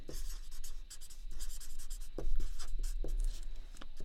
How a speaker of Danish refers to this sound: Nu prøver jeg, og det er der jo ingen, der kan se, øh, jeg prøver at, at skrive de her tre ord sådan lidt fra hinanden, mm. så, så vi kan lave en eller anden form for ordsky.